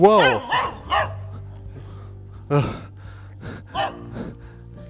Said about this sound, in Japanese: 鎖の繋がれてない犬にめっちゃ吠えられました。怖かった。